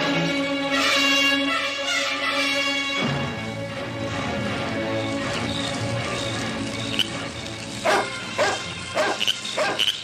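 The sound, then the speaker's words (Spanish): A dog barks repeatedly over a steady harmonic drone, with a burst of several sharp, loud barks near the end; no one speaks. “El perro ladrando igual que anoche y antenoche.”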